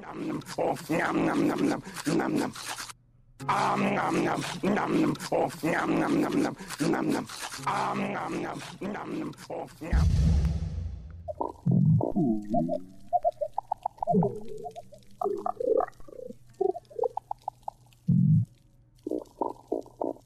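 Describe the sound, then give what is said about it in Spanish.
Recent underwater recording from inside a coral reef in the ocean: a dense, steady crackle fills the first half, then gives way to low grunts, rumbles and short croaking calls from fish, scattered, with no voices. “Bueno, estamos escuchando, me encanta esta grabación, es una grabación reciente del interior de un arrecife de coral en el océano Em, eh, y pues los peces, los arrecifes, son una parte importante de nuestra historia sonora.”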